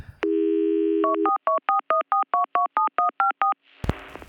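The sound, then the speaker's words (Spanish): A steady telephone dial tone hums for about a second, then gives way to a quick, even run of about a dozen keypad beeps as a call is returned to a public telephone, ending with a sharp click and brief rustle. “A ver, voy a regresar la llamada.”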